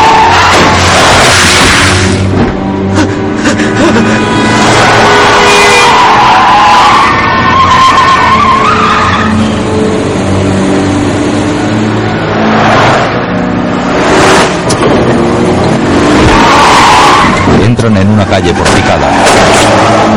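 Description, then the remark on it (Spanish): Loud, chaotic car chase as a car, pursued by another car, swerves around oncoming cars: tires screeching in repeated drawn-out squeals over roaring engines, with sharp bangs and shouting voices mixed in throughout. “Esquivan a coches que vienen de frente.”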